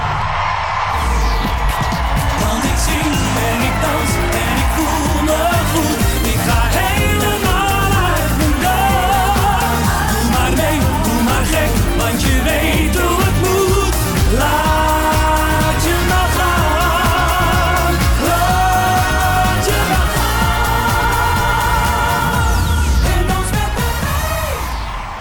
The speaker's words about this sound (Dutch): Grote eh, show was dat bij SBS6. En het is altijd leuk om even in de stemming te komen met de herkenningstune, de openingstune.